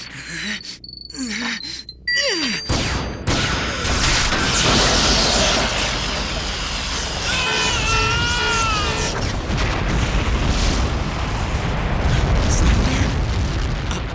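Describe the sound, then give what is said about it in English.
A sci-fi beam rifle fires with a sharp zap, then a Zaku mobile suit, destroyed with one shot, blows up in a loud, roaring explosion that rumbles on for several seconds amid warbling electronic tones. “Zaku destroyed with only one shot?”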